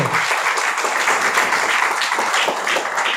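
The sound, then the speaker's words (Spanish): An audience applauds together, a dense, steady wash of many hands clapping at once that stays loud and even for the whole few seconds, with no voices standing out. “Déselo a Dios, por favor, ese aplauso.”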